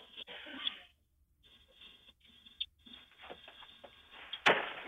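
Scuffing and rustling noises lead up to a single sharp, loud bang near the end as a man kicks in the door of a home, heard through a slightly muffled, low-quality recording with no voices.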